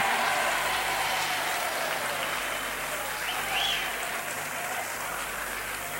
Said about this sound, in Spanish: Y ahora os, os pediría un aplauso muy fuerte para la TV3, para la televisión catalana que están aquí filmando.